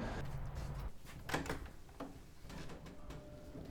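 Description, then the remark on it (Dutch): A door of a new school building slides or swings open with a rumbling scrape, then a sharp clunk midway through, followed by faint shuffling and room noise as people come inside. “Zijn jullie binnengekomen? Gewoon door de deur.”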